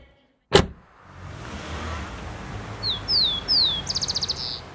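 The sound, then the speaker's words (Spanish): A rufous-collared sparrow (chincol) sings in Santiago: three clear slurred whistles followed by a quick buzzy trill, standing out over a steady low rumble of background noise after a sharp knock at the start. “¿Escucharon? Es un chincón! Quiere decir que está terminando el invierno, este largo invierno de encierro.”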